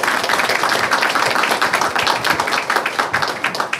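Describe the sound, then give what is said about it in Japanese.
A crowd applauds steadily throughout, dense overlapping hand claps forming a continuous, fairly loud wash of noise with no voices heard, at an IR seminar held in Tokyo on June 7, welcoming the executive vice president of the company Arata. “皆様大きな拍手お願いいたします”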